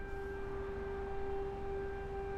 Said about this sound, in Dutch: En als we weer in de auto zitten, Gaat het luchtalarm weer?